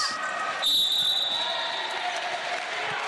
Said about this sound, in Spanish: Hay un silbato, Diego. Así es, es un foul de Amanda Guineo, la tercera en el partido.